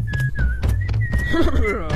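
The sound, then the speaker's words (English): A person whistles in imitation of a zookeeper, a short, wavering melody, the bright tone sliding up and down almost without a break, over low murmuring and soft bumps in the background. “I hear a zookeeper whistling in my ear.”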